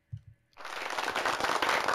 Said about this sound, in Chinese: 像比如像我们的器材，我们的界面上面是有音效板可以按的，就比如说一些拍手还有什么音效，我现在按一下看它有没有音效，等我一下。